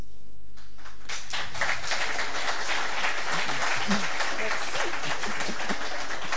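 An audience breaks into steady applause at the UPR's university, a dense wash of many hands clapping at moderate loudness that builds quickly and carries on for several seconds without letting up.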